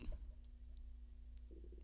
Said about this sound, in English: For the love of God, eat a snack. His stomach is making most ungodly oh. noises.